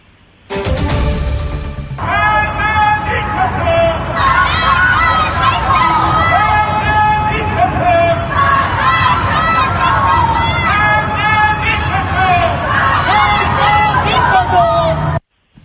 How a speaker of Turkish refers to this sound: Diktatör ne diyor? diyorlar. Diktatör ölüm diyorlar ve Hı. bunu e, apartman balkonlarında pencerelerden bağırarak söylüyorlar. Öyle Geceleri e, bütün İran'daki şehirlerde e, diktatöre ölüm, işte Molla rejimine son, kadın, adalet, özgürlük